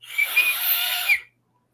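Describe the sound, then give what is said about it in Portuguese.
A referee's whistle sounds one sustained, breathy blast lasting just over a second, with a shrill high tone riding on airy hiss, then cuts off into silence. No one speaks. “O juiz apitou.”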